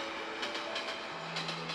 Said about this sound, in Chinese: 远远的。一个小黑点出现，来了来了，火车来了！声音越来越大声，火车越来越接近，很快的，咻，火车过桥了。